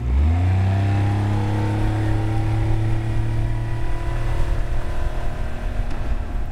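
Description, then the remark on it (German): A boat's outboard motor revs up and then holds a steady, loud drone as the boat motors across the water of a river oxbow toward where it was launched, continuous, with no voices. “Machen wir uns also auf in den Altarm, in Richtung dort, wo wir das Boot ins Wasser gelassen haben.”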